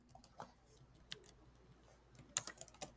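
Quiet typing on a computer keyboard, with scattered soft clicks early on, then a quicker burst of sharper, louder keystrokes near the end. There's no talking.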